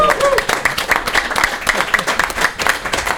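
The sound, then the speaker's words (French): An audience applauds steadily, calling a performer back for a curtain call, a dense, rapid patter of many hands clapping at an even loudness throughout, with a few voices mixed faintly into the crowd noise. “Tu, veux qu'on l'applaudisse plus que ça?”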